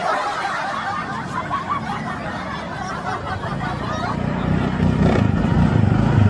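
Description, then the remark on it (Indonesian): A motorcycle engine rumbles steadily, its low growl swelling louder in the last couple of seconds, while people chatter and laugh over it. “Nyalain dong bisa. Ya Allah, ngapain motor?”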